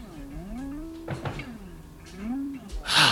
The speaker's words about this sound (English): Ready, yeah, let's try to stick it in here. Okay, the tumbler. The tumbler went. Oh, that's good. Okay, let's see if I can get that door open.